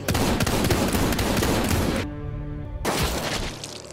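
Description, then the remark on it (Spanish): Loud, dense bursts of gunfire crackle continuously, then break for a moment as a sustained tone rings out before the rapid shooting resumes. “Entre disparos, muertes violentas, disparos y más muertes violentas.”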